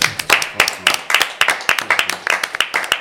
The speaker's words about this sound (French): On a le droit de l'applaudir